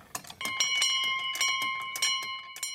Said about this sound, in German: Und wie oft muss die Glocke erklingen, wenn man jetzt rumfragen würde, welche Familie aus Schwabhausen, mag es ja auch Zugroast sein, neue Kriegsopfer zu beklagen hätte?